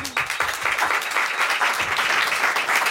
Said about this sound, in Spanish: Muy bien, aplauso.